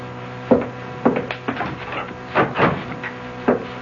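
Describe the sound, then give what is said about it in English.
A door is handled and closed, making a series of wooden thumps and clunks spread over a few seconds, with no voices. “Close the door, won't you?”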